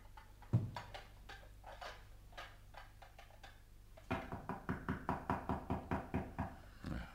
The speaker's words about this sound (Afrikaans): Wie klop nou so? Nou wie die Joos kom plaas terwyl ons eet?